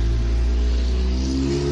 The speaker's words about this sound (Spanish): Ah, la moto. Ay, moto.